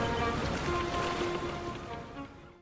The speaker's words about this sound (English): Isn't that a great sea shanty? Don't you just want to dance a jig?